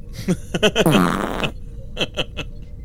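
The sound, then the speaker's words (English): A series of short, sputtering fart noises, with a longer, louder buzzing one in the middle and a few quick blasts trailing off, fairly loud. “stop farting. The force is forcing the pill out.”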